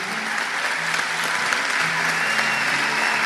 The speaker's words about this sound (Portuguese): Olha para trás, olha esse povo todo ali. Eu quero pedir uma salva de palmas para essa galera aqui.